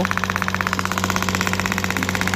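A shockwave therapy device at a physiotherapy session hammers away, its ball striking a plate at 16,000 strikes per minute in a fast, even stream of sharp mechanical taps over a steady low hum, with no voices.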